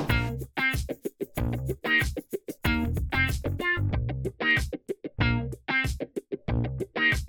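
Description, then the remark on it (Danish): A closing theme plays alone: loud, heavily distorted music with punchy rhythmic chord stabs and short gaps, steady, with no voices over it. “Musikken, du hører, er komponeret af min talentfulde og hjælpsomme søster”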